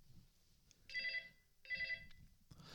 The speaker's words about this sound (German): Ich lass, ich lass einfach klingeln. Geh doch mal dran, vielleicht ist das der Lottogewinn, okay.